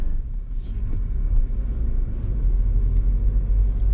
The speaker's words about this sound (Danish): Jo, oh, der kom der lige en anden bil også. Hold da op.